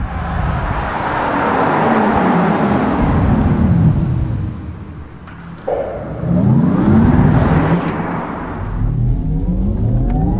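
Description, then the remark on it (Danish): A petrol Porsche sports car engine roars, its pitch climbing through the gears, easing off briefly, then revving hard and accelerating again. No voices are heard. “Øhm, som en sej Porsche, som ikke er på eldøvågen. Jeg tror, den er her med lyden.”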